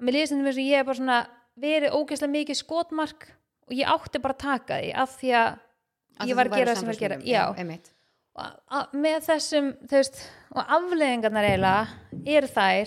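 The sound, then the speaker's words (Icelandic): A person speaks steadily in a studio that is being worked on, with a noticeable echo and reverberation clinging to the voice between phrases. “það er líka bara bergmála svolítið mikið hérna inn því að við erum svona, erum aðeins að vinni í hérna, stúdíónu og allt”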